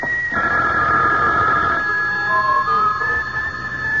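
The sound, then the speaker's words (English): A telephone rings with a steady, shrill electronic tone that sounds continuously for about four seconds, over a dense wash of background noise. “Your phone,”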